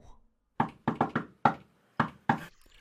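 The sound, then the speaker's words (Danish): Three heroes knock on the door of the great palace atop Elvehøjen: six firm raps in an uneven rhythm with a quick triple in the middle, fairly loud with no voices. “På toppen af højen, i det store palads, bor Elverkongen, der vogter over det tredje og sidste objekt Vores tre helte banker på døren.”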